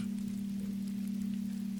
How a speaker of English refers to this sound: Rain sounds nice. It does on the roof. I agree.